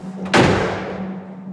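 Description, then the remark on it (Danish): A door at a main entrance hall opens with one sharp, fairly loud clunk that rings out and fades over about a second, over a steady low hum. No one speaks. “Da jeg har siddet på trappen uden for hovedengangen og ventet, går døren op”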